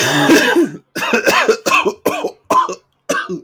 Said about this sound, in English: Sad, this cough is not even from a cigar. I'd be smoking cigars.